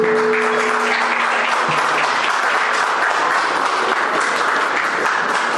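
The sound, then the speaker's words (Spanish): Sustained applause from a large audience at the inauguration ceremony of the seminar Sindicatos en México, Autonomía y Transparencia on 11 October 2012, a dense, steady clatter of many hands clapping at constant loudness for several seconds, with a faint low hum fading out early on. “Pues despidamos con un aplauso a quienes nos acompañaron el presidente en esta ceremonia de inauguración.”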